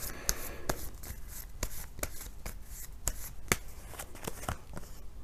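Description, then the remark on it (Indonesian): Tarot cards being shuffled and drawn during a tarot reading, with The Magician card drawn, a quick run of crisp papery snaps and flicks, about a dozen sharp clicks spread unevenly over a soft rustling bed, with no voices. “kartu yang keluar adalah The Magician”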